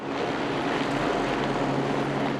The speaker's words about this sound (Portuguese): A polícia interditou uma rua inteira do centro de São Paulo. Do alto, um helicóptero monitorava a área.